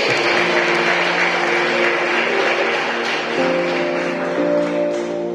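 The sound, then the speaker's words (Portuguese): After a prayer, an audience applauds Jesus steadily for several seconds. The dense, continuous patter of clapping plays over sustained, held keyboard chords, with no speech. “É um aplauso a Jesus.”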